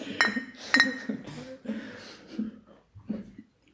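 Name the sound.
glasses clinking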